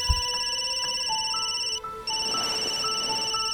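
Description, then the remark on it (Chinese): A telephone rings with a steady, high electronic tone made of bright stacked pitches, pulsing in a quick repeating pattern with a brief break midway. No voices are heard. “听到黄龙接电话，袁浩这才松了口气。”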